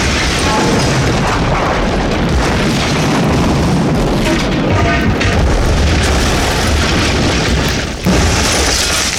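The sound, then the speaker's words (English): Gas pumps that had been set on fire explode in a massive, sustained roaring blast, a dense rumbling wall of noise that barely lets up for nine seconds, with only a brief dip near the end. No voices. “Did did you shut off the gas pumps before you torched them?”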